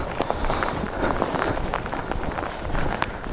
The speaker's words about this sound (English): Oh no. This is no good. it's raining. Of course, there's going to be no reflection. Ah. Oh. What a disaster. and the rain is getting worse.